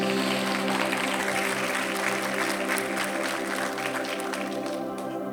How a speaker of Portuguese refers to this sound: Gente, olha para o seu lado aí, olha em redor, olha como está linda essa igreja hoje. Você pode aplaudir o Senhor por isso?